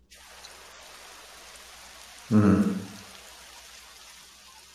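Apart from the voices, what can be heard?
rain falling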